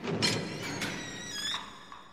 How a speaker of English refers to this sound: They look up and they so the jackdaws hear this door, this giant door open.